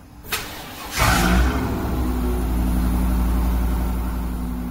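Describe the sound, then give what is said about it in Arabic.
A car engine at a car service center turns over with a short burst, then catches and settles into a loud, steady low rumble that holds for several seconds, with no voices. “مراكز صيانه للسيارات. حتى بعضها يعني اللي فيها اصوات عاليه لا تكون يعني في منطقه معينه صناعيه وزي كذا تسمى المنطقه الصناعيه”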